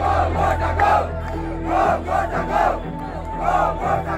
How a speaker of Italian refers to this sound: C'è una famiglia che ha colonizzato tutti i centri di potere e sono i Rajapaksa. La folla adesso vorrebbe che sparissero ed è quello che chiede nel coro che state sentendo.